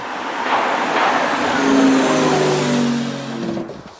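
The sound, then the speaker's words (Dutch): An electric car's artificial driving sound: a steady synthetic hum of layered tones that swells and shifts slightly in pitch over a soft road-noise wash, moderately loud, with no talking. “En daar hebben ze dus een elektrische auto gemaakt. En die zijn heel stil.”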